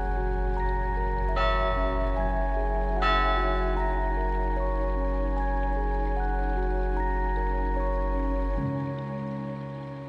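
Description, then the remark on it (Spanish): A meditation bell is struck twice a couple of seconds apart, each strike blooming into a rich, sustained ringing tone over a steady low hum, slowly fading with no voices. “Apenas escuches la campana, vas a ver desde afuera lo que sucedió.”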